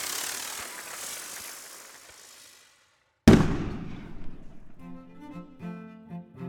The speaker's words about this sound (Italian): Poi la giornata continua con spettacoli, concerti. e fuochi d'artificio.